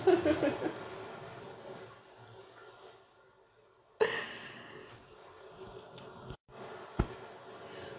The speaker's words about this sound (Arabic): فوالا حكيت على المحيط جا جا صوت الموج